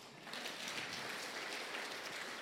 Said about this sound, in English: Praise the Lord. I think she deserves better clap than that.